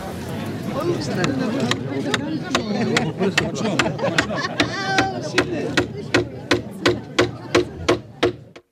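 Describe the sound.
At a celebration, Václav Havel strikes with a hammer: sharp, ringing blows over a murmur of crowd voices, scattered at first, then settling into a steady run of about eight evenly spaced, loud knocks.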